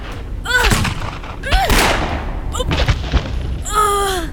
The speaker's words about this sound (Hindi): Jasmine reload करके जागृति के ऊपर पॉइंट करती है और जागृति इधर ट्रिगर दबा देती है हाँ। जैस्मीन को एक एक कर तीन गोलियां लगती